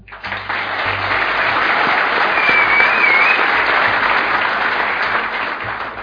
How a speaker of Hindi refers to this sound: आपने सीटी बजाई मैं आपको बता देता हूं वो दस लाख रुपए इनको मिला है आपको नहीं मिला है